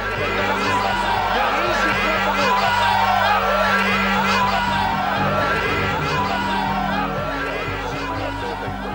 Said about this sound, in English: Outside the hospital, a crowd began to chant, Bibi is a murderer.